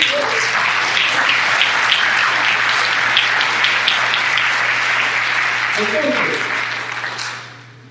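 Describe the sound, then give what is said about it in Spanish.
A crowd applauds steadily for several seconds, a dense wash of clapping with a few voices and whoops mixed in, before the clapping thins and fades out at the end. “Ok, es un tremendo aplauso por estar aquí.”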